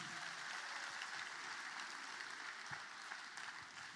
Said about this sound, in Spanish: Amén. Dale un aplauso más al Señor.